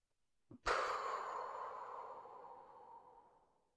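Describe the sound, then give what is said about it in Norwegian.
A long, deep exhale during a breathing exercise, after breath is drawn in through the nose and held, starting abruptly after a short intake and trailing off slowly over about three seconds as a soft, airy rush of breath. “Kjenner du at når du puster ut, så fyker det tanker som du ikke trenger når du skal sove, ut av hodet?”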